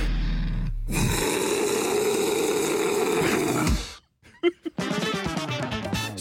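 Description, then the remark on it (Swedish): A single loud, deep human roar, raw and sustained for about three seconds, then breaking off into a moment of quiet before a voice starts talking. “Ska vi bara runda av hela det här segmentet eh, med ett enkelt vrål som alltså fan kommer ända nerifrån lilltånageln.”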